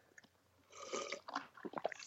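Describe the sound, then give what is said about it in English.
Quiet mouth sounds of someone sipping beer: a soft slurp followed by a few wet swallowing and lip noises, with no talking. “Just taking a sip of my beer.”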